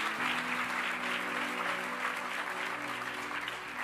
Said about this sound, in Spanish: La iglesia los aplaude y le damos gracias por haber estado con nosotros. Gracias, gracias, gracias.